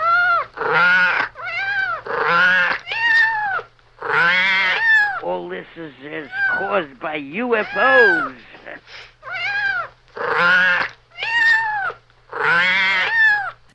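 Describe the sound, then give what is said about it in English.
A cat meows loudly and repeatedly, a string of drawn-out, wavering cries with short gaps between them, while a person briefly speaks partway through. “A cat.”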